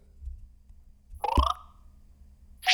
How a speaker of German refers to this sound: wenn du bei Twitter deine Tweets oder Notifications neu lädst, dann kommt dieses Geräusch